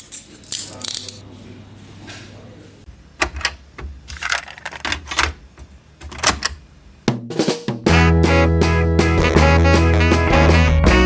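Handcuffs click shut on men being arrested, in a quick series of sharp metallic clicks and ratchets over several seconds, then a loud burst of music takes over.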